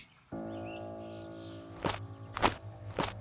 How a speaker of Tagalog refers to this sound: Habang papasok kami sa loob, ay may narinig kaming yabag na parang may kumaripas ng takbo. Dinig na dinig namin ni Lola ang mga yabag nito sa sahig.